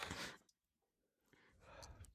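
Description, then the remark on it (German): Someone yawns: a breathy, drawn-out exhale, a short pause, then a longer voiced, stretching breath. No one speaks. “Da gähnt jemand.”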